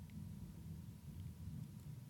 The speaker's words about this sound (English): Hey, there's some of that thunder.